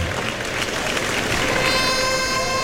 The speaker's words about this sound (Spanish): Y se lleva una ovación, quinta, ¿eh?